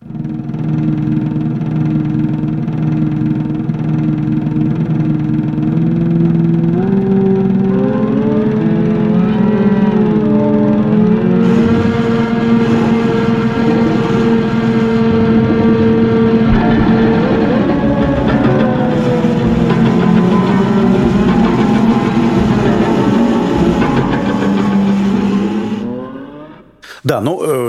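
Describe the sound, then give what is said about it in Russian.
Reconstructed futurist noise-instrument (intonarumori) music, based on the seven surviving bars published in the journal Melos in 1925 to demonstrate notation for noise instruments: loud, continuous droning and whirring tones that slide up and down like sirens and revving engines, layered and grinding for nearly half a minute before cutting off abruptly. “Осталось только семь тактов, которые были опубликованы в журнале «Мелос» в 1925 году в качестве демонстрации способа записи шумовых инструментов.”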